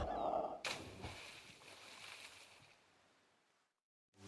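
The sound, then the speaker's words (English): A lifeboat, lowered by a quick release during a lifeboat drill, hits water with a loud, sudden splash, followed by a long churning wash of sloshing water that gradually fades away before a brief silence. “Yeah, uh, how do you activate the quick release to lower the lifeboats into the water?”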